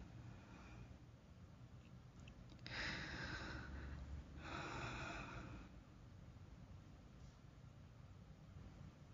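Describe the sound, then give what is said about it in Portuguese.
Two slow, airy breaths, each lasting a second or more, gradually resuming after a silent pause as a person slowly releases their own neck, with a low background hum throughout and no talking. “Solto devagar meu pescoço e aos poucos volto a respirar.”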